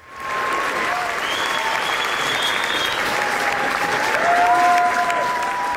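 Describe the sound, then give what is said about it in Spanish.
Steady, dense applause from a large concert crowd fills the whole stretch, with a few drawn-out whistles and shouts rising over the clapping and swelling slightly near the end. “Son aplausos, gente voceando, ¿no? En un concierto.”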